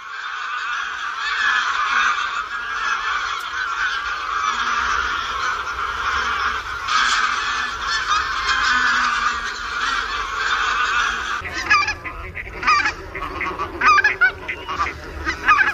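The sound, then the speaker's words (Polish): A large flock of greater white-fronted geese calls continuously, a dense overlapping chorus of honks that thins toward the end into more distinct, separate calls. “to jest właśnie wspomniana przez panią Henrykę gęś białoczelna”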